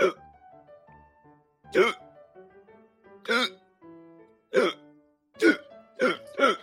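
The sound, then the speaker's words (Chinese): A voice imitates the hiccups of a zebra in a story: about seven sharp, voiced hics with short pauses between, irregular at first, then three quick ones in a row at the end, fairly loud with no other sound. “斑马刚说完，又打了一个嗝。”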